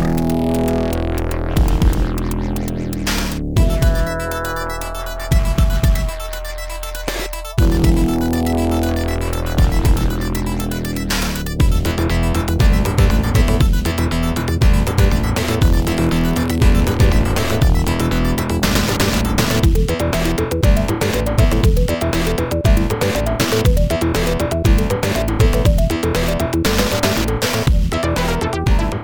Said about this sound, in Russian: Это вступительная тема и по совместительству трек уровня Junk City из игры Earthworm Jim.